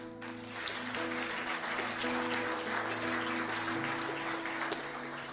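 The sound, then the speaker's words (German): A crowd applauds the Lord steadily for several seconds, a dense wash of clapping with a low sustained hum or organ-like tone underneath, holding an even loudness throughout. “Ja, dem Herrn könnt ihr Applaus geben.”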